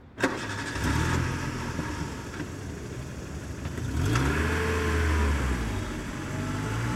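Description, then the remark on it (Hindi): A car engine cranks and starts up, then revs and rumbles steadily as the car pulls away and turns onto a jungle road, the low engine drone rising and holding fairly loud with no voices. “ये कहते हुए उसने गाड़ी जंगल के रास्ते की ओर घुमा ली”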